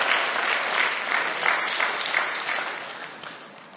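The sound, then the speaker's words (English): An audience claps steadily, many hands blending into a dense, even patter that holds loud for several seconds and then begins to thin and fade toward the end. “Someone clap up in here.”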